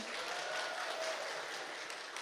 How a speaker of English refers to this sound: Clap it up.